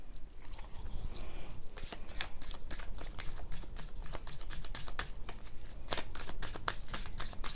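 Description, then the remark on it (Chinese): Tarot cards being shuffled and drawn: a steady run of crisp, papery flicks and snaps, rapid and uneven in rhythm, fairly loud and continuous, with no one talking. “来，再继续让我抽吼。”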